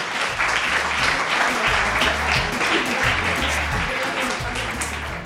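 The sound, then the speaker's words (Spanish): Sustained audience applause for the champions, a dense, steady wash of many hands clapping at an even loudness for several seconds, with faint voices mixed underneath. “Así que bueno, muchas gracias chicos y un fuerte aplauso a los campeones.”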